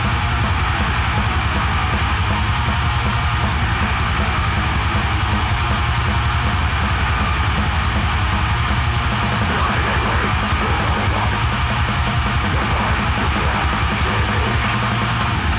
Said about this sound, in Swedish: Enligt Wikipedia kallas den här musiken för power violence.